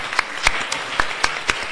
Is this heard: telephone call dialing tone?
no